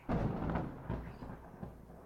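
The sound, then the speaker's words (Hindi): A sudden crack of thunder as dense clouds gather and rain begins, opening into a low, rolling rumble that lingers and slowly fades, heard alone at a fairly soft level with no voices. “हाँ थोड़ी बिजली कड़की और बारिश होने लगी न जाने कहाँ से इतने घने बादल आ गए थे आज”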